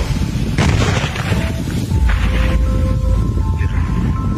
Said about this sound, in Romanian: Pentru a asigura o intervenție în condiții de siguranță, specialiștii au evacuat explozivul la centrul de tragere din orașul Vulcănești, unde s-a efectuat detonarea controlată.